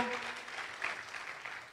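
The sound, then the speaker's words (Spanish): An audience claps for the Lord during a sermon in a dense, continuous patter of applause, moderately loud and sustained for the whole moment, with a faint voice briefly audible at the start. “Que alguien aplaude al Señor.”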